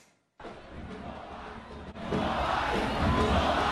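A large crowd at the Las Tablas carnival erupts in sustained booing and shouting at Leonel Rodríguez Estanciola, PRD youth vice-president, while he is standard-bearer of the Calle Arriba tuna of Las Tablas; a dense roar that starts abruptly after a brief silence and grows louder midway, continuing steadily to the end.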